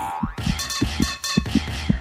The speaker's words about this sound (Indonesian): Detak jantung pun tak karuan, sulit diprediksi.